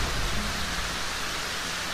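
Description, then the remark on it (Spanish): Steady, dense rain hisses while a deep, low thunder rumble rolls underneath, loud and continuous throughout the short stretch with no voices; a storm with a strong gale on a cold night. “Había tormenta y la ventana se abrió de par en par por el fuerte vendaval.”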